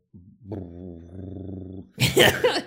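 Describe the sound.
A voice imitates the deep burble of a V10 or V12 engine, holding a low, buzzing, slightly wavering hum for nearly two seconds, followed by a short burst of breathy, noisy sound.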